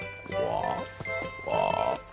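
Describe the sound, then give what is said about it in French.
A frog croaks twice in a slow rhythm, each call a warbling, throaty burst lasting under a second, fairly loud, with short clicks between the calls and no talking. “L'embrouille, la grenouille.”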